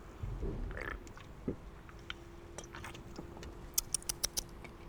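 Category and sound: food or drink, sipping a drink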